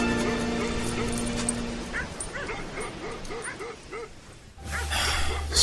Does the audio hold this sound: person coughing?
no